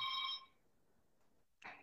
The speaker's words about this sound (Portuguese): Quer atender aí o telefone? Tá, tranquilo. É, é o interfone aqui.